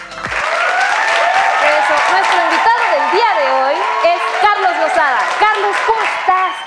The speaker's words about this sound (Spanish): ¿Cómo te aplauden todos?